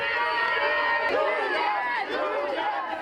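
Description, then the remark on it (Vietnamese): A large crowd of supporters of Julian Assange, gathered outside a court, fills the scene with a steady, loud wash of many overlapping voices, shouting and calling over one another continuously for a few seconds, with no single speaker standing out. “Những người ủng hộ ông Julian Assange tập trung bên ngoài tòa.”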